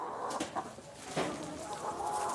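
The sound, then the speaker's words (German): Several 22-week-old dual-purpose breed hens, just beginning to lay eggs, cluck and murmur in a barn, their short calls overlapping in an irregular stream at moderate volume with a diffuse background of more birds. “Die Schwestern der Zweinutzungshähne sind mittlerweile 22 Wochen alt. In diesem Alter beginnen sie gerade erst Eier zu legen.”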